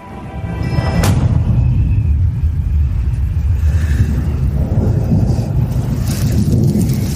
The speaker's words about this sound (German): In der Ferne zieht ein Gewitter auf.